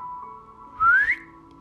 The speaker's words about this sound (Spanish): En eso se escuchó un silbido